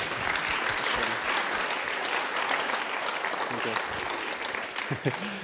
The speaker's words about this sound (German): Vielleicht könnt ihr an der Stelle nochmal einen kleinen Applaus unserem tollen Team geben, ehrlich.